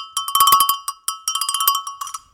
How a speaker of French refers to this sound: C'est un petit toupin que j'ai trouvé sur un vide-grenier à Banon